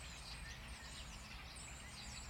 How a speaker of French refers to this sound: d'écouter tous les oiseaux, les écureuils qui se promènent dans les feuilles.